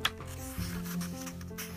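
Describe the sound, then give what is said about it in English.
Tape is pressed and rubbed onto a handlebar to hold a throttle in place: a short click, then a steady, papery friction sound that continues for about two seconds at moderate loudness, with no voices. “She puts tape on.”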